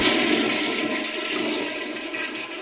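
Loud rush of gushing water from a toilet flushing after a lever is pressed, sustained steadily for a few seconds and easing off slightly toward the end, with no voices.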